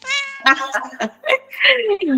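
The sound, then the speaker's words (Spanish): A cat meows a few times in quick succession, fairly loud, with drawn-out, sliding cries broken by short pauses. “De mis gatos no vas a estar hablando, ¿eh?”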